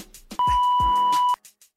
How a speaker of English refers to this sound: All right, now go ahead and leave your question at the sound of the beep.